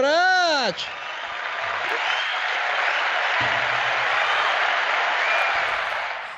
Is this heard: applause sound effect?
yes